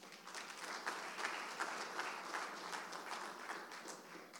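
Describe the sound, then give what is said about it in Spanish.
An audience applauds Jesus steadily, many hands clapping in a dense, continuous patter at an even level for several seconds, with no talking over it. “Alguien déle un aplauso fuerte a Jesús.”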